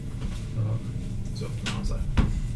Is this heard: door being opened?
yes